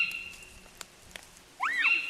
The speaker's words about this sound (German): Es ist ganz unheimlich, wenn es in der Nacht so einen Sturm gibt. Jetzt kommen Blätter runter, man denkt, es ist ein Hagel. Es kommen ganz viele Kastanien runter.